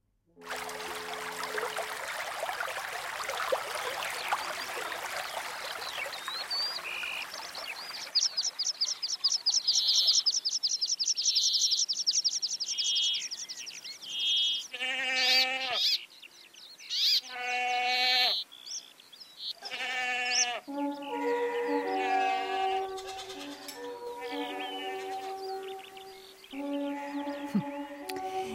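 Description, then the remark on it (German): Birds chirp and trill in bright, high calls outdoors in the mountains at dawn, in cool, fresh air, after a hissy, breezy opening, then repeated bleating animal cries join and overlap the birdsong. No one speaks. “Macht mal die Augen zu. Hört ihr die Vögel?”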